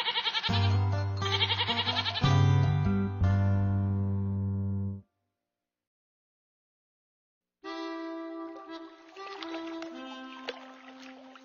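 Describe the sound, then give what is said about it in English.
A goat in a field bleats in loud, quavering cries: a run of three bleats, a brief silence, then another longer, wavering bleat. No voices are heard. “A goat is in a field.”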